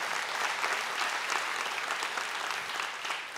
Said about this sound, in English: Isn't that good news? Go ahead and clap for that.